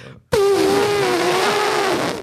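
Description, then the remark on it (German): A person loudly imitates a cartoon elephant's trumpet call with their voice: one sustained, brassy, buzzing blast lasting nearly two seconds, starting abruptly and then cutting off. “Und mein Lieblingscharakter war der Elefant einfach.”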